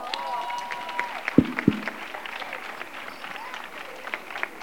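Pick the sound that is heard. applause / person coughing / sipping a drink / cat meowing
applause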